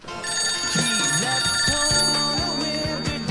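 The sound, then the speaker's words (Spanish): A telephone rings steadily and loudly in a clear electronic trill, with bright sustained tones layered over a pulsing melodic pattern; no one speaks. “Entonces, para hablar de, Amber, antes vamos a escuchar esta, esta conversación telefónica.”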